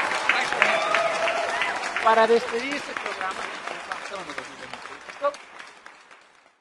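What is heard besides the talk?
audience applause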